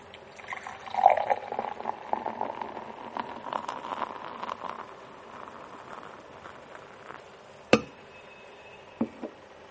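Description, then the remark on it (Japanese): Well-chilled beer pours steadily into a glass for several seconds with a fizzing, splashing wash, then stops; a couple of sharp clinks or taps follow near the end. No one speaks. “次いでみましょう”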